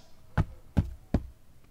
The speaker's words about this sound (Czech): Krátkou chvíli se ozývalo také dupání, jako kdyby někdo běhal po palubě.